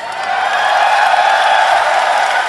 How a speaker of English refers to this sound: So you know, you're all cheering, but you haven't seen the items yet.